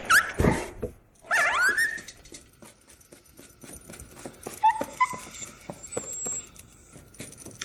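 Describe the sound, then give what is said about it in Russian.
A wounded dog, still alive after being shot, whimpers: a sharp yelp, then high rising whines that fade into softer, broken whimpers over rustling noise, with no talking. “Собака еще жива.”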